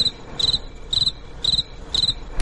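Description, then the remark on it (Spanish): Crickets chirp on the lawn of the Heliodoro stadium in a steady rhythm, short bright trills repeating about every half second, clear over a quiet outdoor background with no one speaking. “Estos están en el césped del Heliodoro.”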